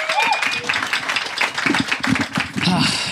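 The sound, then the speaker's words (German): Steady applause from a group, a dense crackle of many hands clapping that carries on without pause for about three seconds, with some voices mixed in underneath. “Dein Applaus vielen, nochmal.”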